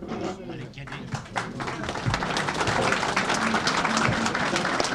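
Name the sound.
applause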